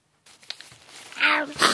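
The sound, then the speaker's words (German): A breathy, gasping build-up gives way to a loud, voiced sneeze in two bursts, a harsh hissy 'ah' followed by a sharp 'choo', from someone with a cold and a tickling nose, heard alone without other talk. “Davon hört das garstige Kribbeln in meiner Nase aber nicht auf.”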